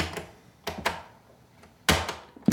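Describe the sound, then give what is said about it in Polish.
Sharp mechanical clicks and clunks of tape recorder buttons being pressed to start recording and then pause, a few separate presses spaced irregularly, fairly loud with no talking. “Jeszcze raz włączam nagrywanie. Teraz pauza.”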